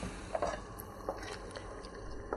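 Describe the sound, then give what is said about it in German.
A pot of salted spaghetti water at a rolling boil, with a steady low rumble and scattered soft bubbling pops, fairly quiet, with no voices. “Ja, in der Zeit hier, jetzt kocht mein Spaghettiwasser.”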